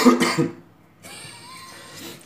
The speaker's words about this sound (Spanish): Disculpen, coño, tengo tos, marico.